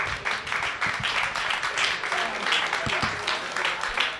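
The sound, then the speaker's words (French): Sustained crowd applause for a guest at an evening event dedicated to youth, a dense, steady wash of many hands clapping at an even loudness throughout, with a few sharper individual claps standing out. “J'aimerais qu'on applaudisse très fortement”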